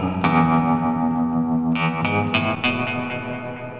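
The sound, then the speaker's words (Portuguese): An electric guitar played through a tremolo pedal, which varies the sound's amplitude, gives a wavering, trembling effect. Sustained chords pulse slightly in volume with a few sharper plucked attacks, heard alone and fairly loud with no voices. “Há ainda o pedal trêmulo, que é muito utilizado na surf music e também produz variações na amplitude do som, que dá um efeito que faz parecer que o som está tremendo.”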